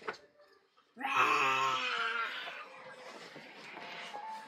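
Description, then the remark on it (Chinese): A pet frog at home croaks loudly, one abrupt, drawn-out call with a nasal, bleating tone that wavers in pitch before trailing off into softer wavering sounds. “青蛙呀，咱家青蛙叫。”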